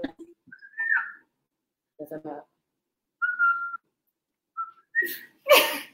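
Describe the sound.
A person whistles short, bird-like call notes in several separate bursts, some steady and some rising, moderately loud, with a brief voiced sound between them and no clear speech.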